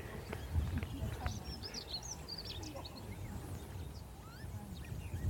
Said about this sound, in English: But did you hear that kind of squeaky? Mm. That's a lapwing.